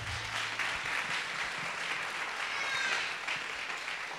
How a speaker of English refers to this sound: yeah, please clap that up.